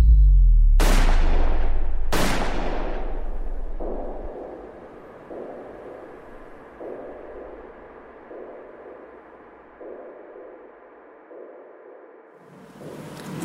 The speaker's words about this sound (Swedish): Klockan är 23.21. När gärningsmannen kommer fram bakom makarna Palme och skjuter två skott på nära håll. Det första träffar Olof Palme i ryggen, det andra snuddar vid Lisbeth Palmes rygg.